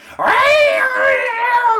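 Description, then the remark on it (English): A human voice imitates cats yowling all night in a house with purebred Persian cats and a tabby: a single loud, wavering, nasal wail held for nearly two seconds with a rising onset and slowly sagging pitch. “You know, my wife's got all these like purebred Persians and everything, and he brought a tabby mutt into the house, and all night long, all he hears”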